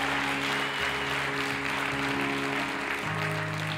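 An audience applauds steadily for the full stretch, a dense wash of many clapping hands with no pauses, while a low sustained keyboard tone hums underneath.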